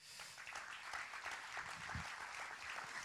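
An audience applauds steadily for a poet called to the front, a dense wash of many hands clapping at an even loudness for the full few seconds, with no voices standing out.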